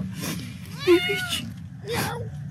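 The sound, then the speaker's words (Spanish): A cat meows once clearly, with a rising and falling harmonic cry, followed by a short breathy sound over low background noise. “Ahí está, Ahí está el gato.”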